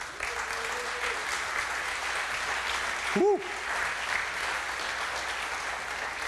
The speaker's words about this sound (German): Jetzt ist dein Auftritt. Gib dir mal einen kräftigen Applaus hier.